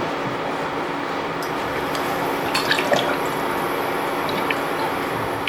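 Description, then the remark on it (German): Olive oil trickles into a dry pot with a steady liquid hiss, broken by a few small clicks and ticks near the middle. No one speaks. “Ein bisschen Olivenöl. Zwiebeln schon mal ins Öl”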